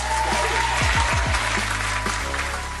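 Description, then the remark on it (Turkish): Applause sound effect played to celebrate receiving an award: a dense, steady wash of many hands clapping at full volume, with a few low sweeping tones underneath, fading slightly toward the end. No one speaks. “Yağız'dan buraya bir alkış efekti isteyeceğim.”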